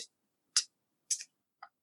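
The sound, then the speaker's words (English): Soft clock ticking, four crisp clicks spaced about half a second apart in a steady rhythm, faint with silence in between and no voices. “It's the clock. I've never noticed that that clock ticks, but just right now, mm-hmm.”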